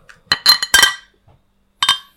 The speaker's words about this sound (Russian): Слишком много чокаемся.